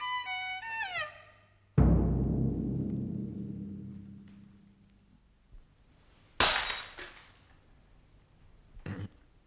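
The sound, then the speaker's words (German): A drinking glass falls and shatters with a sharp crash and a tinkling decay. A second bright smash follows a few seconds later, then small clinks. Brief chiming tones open the scene. “Sie haben das Glas fallen lassen, Herr Doktor.”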